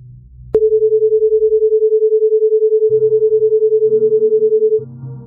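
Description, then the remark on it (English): A binaural beat audio illusion from tones of slightly different frequencies: a steady mid-pitched tone that pulses in a quick, even wobble for about four seconds, with a low murmur rumbling underneath in the second half before it cuts off. “if the frequencies are different by just the right amount, your brain will believe you're also hearing a sort of like rhythmic, pulsing beat.”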